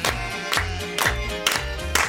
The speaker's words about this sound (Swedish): Och här klappar vi med också!